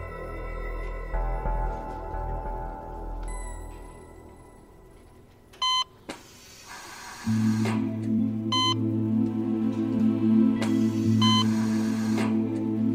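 Machines that display images hum and whir steadily in a room, while short electronic beeps chirp at intervals, with a low droning tone swelling in partway through, creating a busy, odd mechanical soundscape.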